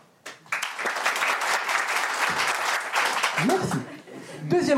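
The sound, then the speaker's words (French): A stand-up comedy show audience bursts into loud, sustained applause, a dense clatter of many hands clapping for several seconds, with some laughter and voices rising underneath toward the end. “Donc applaudis une fois et normalement tout le monde applaudit.”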